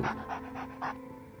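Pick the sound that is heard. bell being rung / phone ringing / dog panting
dog panting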